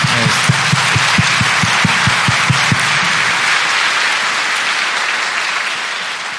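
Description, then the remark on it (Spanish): A crowd breaks into loud, dense applause for the Lord, with a few rhythmic unison claps near the start before it settles into steady, continuous clapping that slowly eases off. “¿Lo creo o no lo creo Si lo cree, un fuerte aplauso al Señor.”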